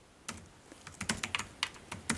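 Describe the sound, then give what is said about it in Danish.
Quiet computer keyboard typing as someone writes down everything they can remember: a run of crisp, irregular key clicks in small bursts, with no voices. “Jeg gør det, at jeg sætter mig til at skrive alt det, jeg kan huske, bare for at gøre noget.”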